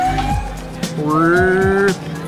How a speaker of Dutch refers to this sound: De ambulance.